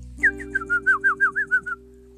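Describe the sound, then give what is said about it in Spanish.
A small bird chirps a greeting, a quick run of about ten bright, evenly spaced notes, clear over a faint steady hum, then falls silent. “Un pajarito la saludó”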